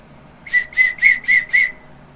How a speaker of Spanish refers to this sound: Este es un silbato de auxilio que lo ocupamos solo precisamente en auxilio y para abrir paso cuando habemos, este, hay bastantes corriendo allá arriba, que sí se han juntado algunos.